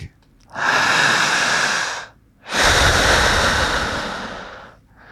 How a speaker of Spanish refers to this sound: Efectos de sonido, para que no digan que no hay. Efectos de sonido que se dan justo en el instante. Escuchar y sentir lo siguiente. Respirar por la boca más o menos así.